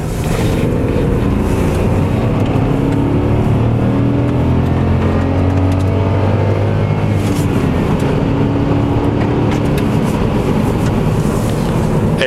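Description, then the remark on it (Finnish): A small car's 1.0-litre, 120-horsepower EcoBoost turbo petrol engine revs steadily and loudly for several seconds, its pitch rising and falling through continuous harmonic drones, with no voices present. “Yksi, yksi litrainen 120 hevosvoimainen moottori EcoBoost. Kuunnelkaa näitä moottoriääniä.”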